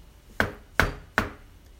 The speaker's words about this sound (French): Le loup ne fut pas longtemps à arriver à la maison de la mère Grand. Il heurte.